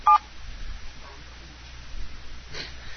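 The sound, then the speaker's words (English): A single short, loud telephone keypad beep sounds right at the start, followed by quiet, hissy line noise with faint muffled rustles and no further tones. “Was your sound card trying to dial out?”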